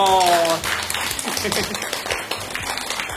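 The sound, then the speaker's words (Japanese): An audience breaks into steady applause, a dense crackle of many hands clapping that holds for about three seconds, with a brief tonal voice sound at the very start. “じゃあ皆さん拍手お願いします。”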